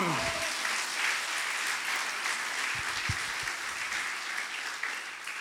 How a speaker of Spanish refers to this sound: El que lo crea, dele un aplauso al Señor.